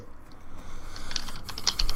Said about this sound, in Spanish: Deja estar tecleando, por favor.